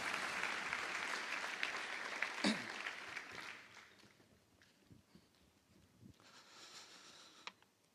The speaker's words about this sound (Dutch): Mooi. Nou, bedankt voor jullie prachtige verhalen. Zullen we ze nog één keer een heel groot applaus geven?